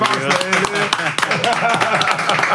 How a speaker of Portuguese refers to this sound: Foi mais aplaudido aqui no canto.